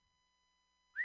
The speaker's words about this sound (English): Oh, whistle.